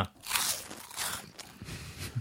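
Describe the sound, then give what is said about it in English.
Crisp crunching of a Carolina Reaper spicy chip being bitten and chewed, several sharp bursts in quick succession with a little low rustle between them, no talking. “This is the Carolina Reaper. what's the crunch factor?”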